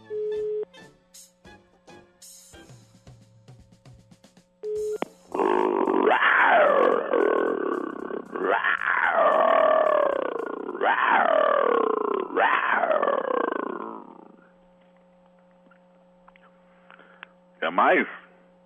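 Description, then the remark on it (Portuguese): A man's voice imitates an animal, letting out four loud, drawn-out roars back to back, close to the mic, followed by a brief growling burst after a pause. “Ah, não vou rugir mais, não.”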